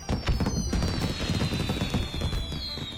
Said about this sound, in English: at the stroke of midnight on New Year's Day, it's customary to stay up until midnight after dinner. Um, firecrackers and fireworks are set off at the stroke of the midnight to scare away evil spirits and celebrate the coming of the new year.